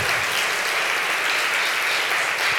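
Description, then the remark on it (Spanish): An audience applauding the Lord steadily, a dense, even wash of many hands clapping at constant loudness with no voices standing out, lasting a few seconds. “Dele fuerte ese aplauso al Señor.”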